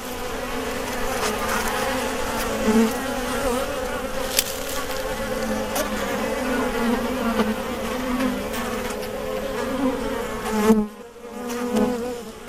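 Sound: honeybees buzzing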